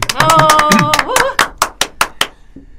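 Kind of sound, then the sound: crowd, hand clapping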